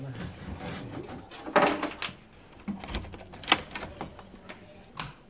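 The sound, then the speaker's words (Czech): At a theatre's drama dressing rooms, keys rattle and jingle as they are pulled out, followed by clicks and a clunk of a door being unlocked and opened, a series of short irregular metallic knocks. “A teď si tady vytáhnu klíče.”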